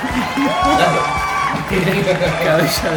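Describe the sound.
A crowd applauds and cheers steadily for several seconds, a dense wash of clapping mixed with shouting and whooping voices, fairly loud throughout.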